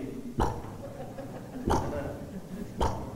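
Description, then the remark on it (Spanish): A voice imitates a video game's brick-placing sound: three short, punchy vocal pops spaced about a second apart, fairly loud, with faint murmuring between them. “¿Se has visto esos juegos donde le ponen un sonido a los ladrillos?”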